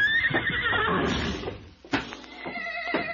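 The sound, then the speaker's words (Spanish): Mares neighing, several overlapping whinnies with a wavering high pitch that fill the first half, then a few sharp thuds and shorter, fainter neighs follow. “Pero ahí, pero ahí se estuvo escondido, detrás de la cruz del perdón, hasta que todas las yeguas entraron a la plaza.”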